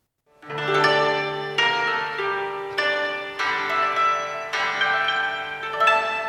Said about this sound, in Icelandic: Svo er koto, tegund af japanskri hörpu.